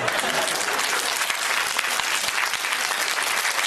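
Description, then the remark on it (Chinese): Steady, dense applause from an audience, a continuous wash of many hands clapping at an even, loud level throughout, with no voices standing out. “啊，跟你过日子不舒服啊，有感觉，掌声。”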